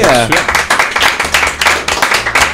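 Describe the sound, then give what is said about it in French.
Studio applause for a guest on Buzz Radio: a small group claps steadily and loudly in quick, even bursts, with a brief voice at the start and some chatter underneath. “on peut applaudir notre invité.”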